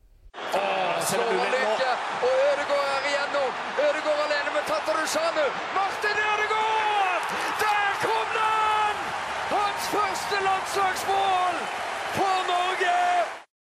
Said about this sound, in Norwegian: Her kommer en jingle, så skal vi se om stemningen er like bra når vi kommer tilbake etter kampen.